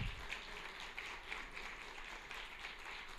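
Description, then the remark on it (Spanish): A church audience applauds after the preacher calls for applause, a dense wash of many hands clapping with a loose, regular pulse about twice a second. The sound is fairly soft and steady throughout, with no voices on top. “Aplauda.”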